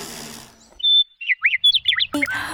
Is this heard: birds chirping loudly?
yes